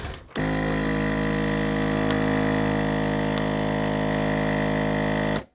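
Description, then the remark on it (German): A machine heat-seals something for a time capsule in plastic film, giving off a steady, droning motor hum with a low buzzing tone for about five seconds, starting and stopping abruptly, with a couple of faint clicks. “So, und jetzt schweiße ich das noch in Folie ein.”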